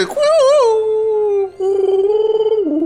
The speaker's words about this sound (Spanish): Se oían los coyotes en la vía.